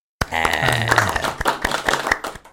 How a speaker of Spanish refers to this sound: Entonces, un aplauso también para mi compadre.